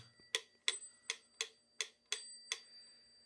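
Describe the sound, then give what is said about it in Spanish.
A wind-up mechanical metronome ticks seven times at a steady, fairly brisk pace, each sharp click clear against a quiet background with no talking. “El metrónomo.”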